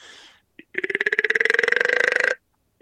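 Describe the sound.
A person imitates a whitetail buck grunt: a short breath, then one long, loud, guttural croak with a rapid rattling pulse that runs for over a second.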